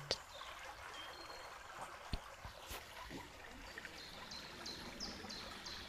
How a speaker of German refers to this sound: Und es kann sein, dass so langsam einfach nur noch dein Atem und das Plätschern des Flusses wirklich präsent sind.